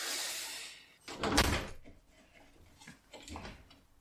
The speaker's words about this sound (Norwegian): Men du bare lukker vinduet ah. Gjorde jeg det?